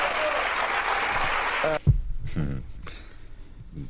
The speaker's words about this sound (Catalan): Molt bé, ja sentiu els aplaudiments que segueixen a cada, a cada frase d'aquest individu.